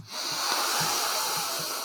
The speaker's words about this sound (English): if you put your nose in the glass and you take a big big old sniff